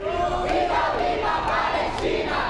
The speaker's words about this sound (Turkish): Brezilya'da gösterilerin adresi Sao Paulo oldu. Filistin bayrakları taşıyan insanlar acil ateşkes için ses yükseltti.